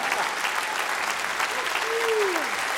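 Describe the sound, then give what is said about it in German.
A crowd of horse fans at a live show claps steadily and densely throughout, a continuous wash of applause, with a single drawn-out cheer or whoop rising above it near the end. “Das sind alles die Pferdefans, die heute gekommen sind, um mich live vieren zu hören.”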